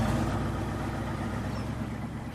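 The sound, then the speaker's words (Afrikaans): A car engine hums steadily, a low rumbling drone that holds even throughout as the car drives off, with no voices present. “Die twee spring in die kar en Petronella ry weer verder.”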